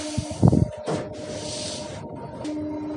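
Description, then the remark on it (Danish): Steady rumbling interior noise of a moving passenger train, with a low hum, faint tonal whine and a brief louder thump near the start, no voices. “nu er jeg altså med toget.”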